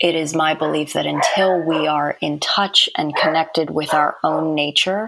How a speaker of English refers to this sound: Yeah, oh, sorry about my dogs. There's a little nature at my house. I hope you can't hear them.